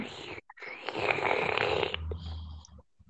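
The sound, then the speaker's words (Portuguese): A loud gurgling slurp of chimarrão (mate tea) being sucked through a metal straw, one sustained rasping draw of about two seconds that trails off into a few short sputters, in very cold weather in the south. “Ruído de mate.”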